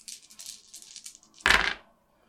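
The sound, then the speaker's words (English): Several dice rattle and tumble across a table during a Dungeons and Dragons game, in quick, light clicks, ending in a louder clattering burst as they land together, with no voices. “Ooh, many dice. Yes. Mm. uh, I love being able to see people roll dice.”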